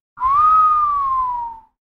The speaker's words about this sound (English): You know how to do that whistle? Like when you're astonished.